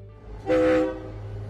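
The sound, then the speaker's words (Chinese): A train gets under way: a single short, loud horn blast rises over a steady low rumble of the engine, which continues evenly after the horn fades. “不知道过了多长时间，火车又开了，又把我们拉了回去”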